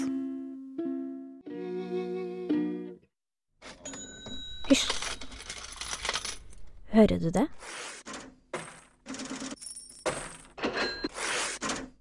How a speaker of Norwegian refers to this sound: Det, kjære lytter, er lyden av salgsinntekta. En stødig, inngående strøm av blankpussa, klirrende mynter. Ja, det er lyden av suksess, av rikdom og kommers.